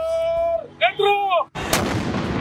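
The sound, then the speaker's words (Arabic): A Ramadan iftar cannon fires once at sunset to mark the breaking of the fast, with a loud, booming blast that lingers as a rumbling, crackling roar, preceded by a short stretch of gliding, whistle-like tones. “ويطلق المدفع كل يوم عند المغرب عند الإفطار وعند الإمساك مدفع الإفطار”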